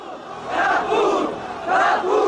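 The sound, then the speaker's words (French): A large crowd on the Place de la Bastille shouting and roaring together on 14 July 1789 at the storming of the Bastille, the din swelling in two or three loud surges over a steady wash of voices, with no single speaker standing out. “une place de la Bastille noire de monde en ce 14 juillet 1789.”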